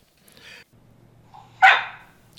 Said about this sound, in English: Ginger, my cattle dog, and flightless and frightless co host. Say hi, Ginger.